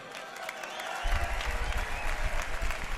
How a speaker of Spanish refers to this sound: Oye, un ridazo para los encisos, un aplauso, por Dios.